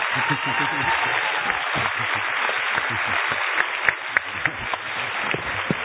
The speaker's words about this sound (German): Applaus für Coco.